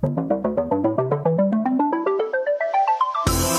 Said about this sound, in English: Here's the jingle.